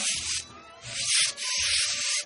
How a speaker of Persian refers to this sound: میدونی که منظورم از اینا چیه نفهمیدی موشا دیگه صدای موش بود